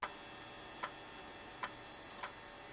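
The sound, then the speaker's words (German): Four sharp, dry clicks land at roughly even intervals under a second apart, ticking over a steady background hiss at a quiet level, with no voices. “Also so zwischendurch macht's Geräte wie von einem Nadeldrucker.”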